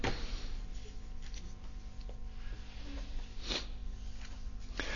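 A quiet rustle of a book page being turned, a brief papery swish followed by a faint second flick, with no talking over a low steady hum.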